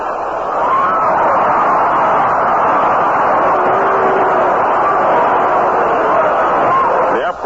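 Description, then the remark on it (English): A steady, loud roar from a large stadium crowd at a baseball game, as someone fumbles a foul ball, swells and holds for several seconds as a dense wash of many voices, with no single speaker standing out. “roar you heard in the background was due to the fact somebody fumbled around with a foul ball.”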